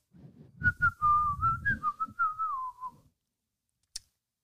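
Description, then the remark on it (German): A person hums a short, wavering tune for a couple of seconds, fairly clear, with no talking; a brief click follows after a pause. “Jetzt müsst ihr kurz hören, wie ich summe.”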